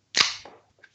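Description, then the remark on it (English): A beer can, opened as a toast to actor Dick Miller, cracks open with one sharp pop and a brief hiss of escaping fizz that fades within half a second, followed by a couple of faint metallic clicks. No one speaks. “Oh, and by the way, he, I'll he, crack a beer to that.”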